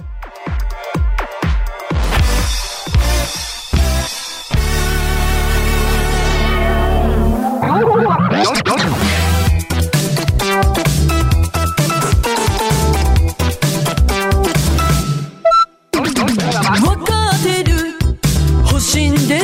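A Japanese pop song played on Radio UAA, loud and up front, opening with punchy rhythmic hits, swelling into a sustained synth wash, then breaking into a dense, bright full-band groove.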